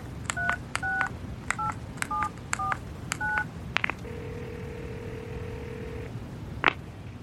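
A telephone number being dialed: about seven short touch-tone beeps in a quick, uneven sequence, then a click, a steady humming tone for a couple of seconds, and another click.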